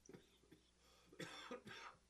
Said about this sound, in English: hold on a minute, I'm gonna cough.